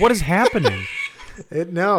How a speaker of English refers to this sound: No, that's that's a rooster somewhere in the background.